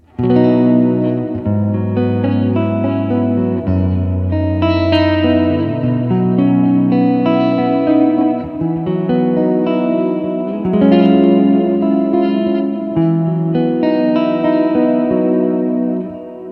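Electric guitar chords in the key of B, played with open strings, ring out one after another with a lush, shimmering effects-laden tone, sustained and steady in volume, with no voices over them.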